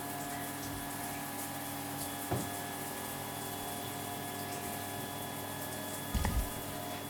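Shower water runs in a steady, even hiss as a child rinses in the shower, with a faint mechanical hum beneath it and a couple of brief low thumps along the way. No one speaks.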